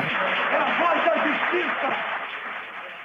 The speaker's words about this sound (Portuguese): Tem até um gritinho de já ganhou da plateia.